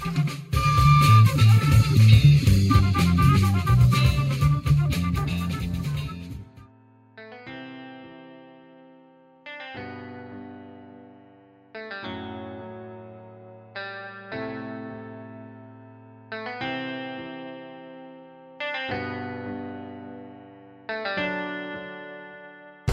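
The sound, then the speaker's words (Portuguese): A short, heavily processed musical jingle opens with a dense, loud burst of sound, then settles into sustained, chorus-drenched chord stabs repeating every couple of seconds, each swelling and fading. “Bem, vamos junto nessa e depois eu falo mais depois dessa vinheta aí.”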